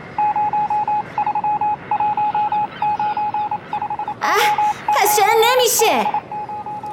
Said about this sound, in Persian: جاکوب رادیو رو روشن میکرد و اونقدر دکمه رادیو رو میچرخوند تا بالاخره روی کانال درست قرار بگیره اما پارازیتو اینقدر زیاد بود که جاکوب و عصبی میکرد